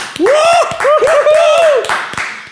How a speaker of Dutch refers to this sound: En een applaus voor alle militairen. Waar ook ter wereld die voor de Nederlandse vlag strijden.